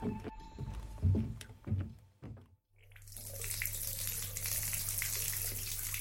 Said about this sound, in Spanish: Ay, por fin, una ducha, una ducha calentita.